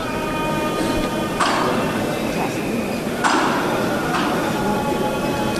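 A metal knocker (martillo) on the Holy Week float of Jesús Nazareno in Plaza de San Lorenzo, as the last Nazarenes come out, strikes twice, about two seconds apart, each blow ringing out sharply above the steady murmur of a large, dense crowd.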